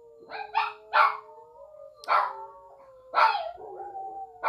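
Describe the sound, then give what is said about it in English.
A dog barks in short, sharp bursts: a quick cluster of three, then single barks spaced about a second apart, loud, while a steady siren wails in the background. “And I apologize to my dog. There's a siren in the background.”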